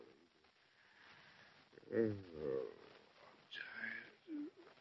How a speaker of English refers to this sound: The hour was late, and the two men had been sitting deep in thought for many long hours in the study. Finally, the president yawned wearily.